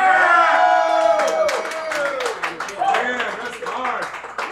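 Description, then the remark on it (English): A live crowd at a beat battle erupts in loud cheering and whooping as the final beat is reached, with a burst of sustained, irregular clapping running underneath and continuing as the voices rise and fall. “Everybody make noise one time.”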